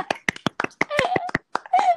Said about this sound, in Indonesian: tepuk tangan dulu dong bang iya. ya gimana ini tepuk tangannya